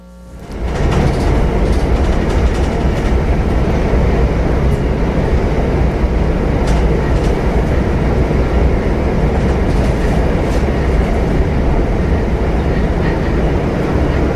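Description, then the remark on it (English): A commuter train rumbles steadily along the rails, a loud, continuous low roar with faint rhythmic clatter, heard from inside a carriage after a brief quiet start. “Or is this train sometimes like this emotionless tunnel where people stop communicating with one another?”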